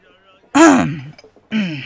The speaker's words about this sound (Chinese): 那中年汉子微微一笑，清了清嗓子，朗声说